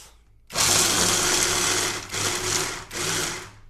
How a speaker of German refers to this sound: Dann on top die Paprika. Und dann pressen wir uns schon mal eine Knoblauchzehe rein. So, dann machen wir damit nochmal die erste Mixerrunde. So, also bitte Ohren zu halten, das wird laut.